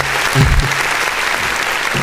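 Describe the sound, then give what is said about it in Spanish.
A crowd applauds steadily, a dense wash of many hands clapping at a fairly loud, even level throughout, with a brief low murmur near the start. “Aplausos también para ese Barbaján.”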